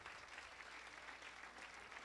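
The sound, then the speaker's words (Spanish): A large group claps together in a dense, steady burst of applause, the many hand claps blending into a continuous rushing patter with no voices over it. “Podemos dar un aplauso a todos los que aguantan una.”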